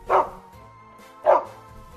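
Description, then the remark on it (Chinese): A big dog in a park barks twice, with a pause of about a second between the loud, mid-pitched woofs. A low, steady hum continues underneath, and no one speaks. “一直走，一直走，来到一个公园，才发现原来是一只大狗。”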